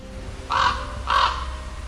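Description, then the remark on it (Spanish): Two harsh, raspy raven caws ring out one after another, evenly spaced, over a low, steady background rumble with no voices: Odin's ravens, Hugin and Munin, sent to fly over creation. “envió a sus cuervos, Hugin el pensamiento y Munin la memoria, a sobrevolar la creación.”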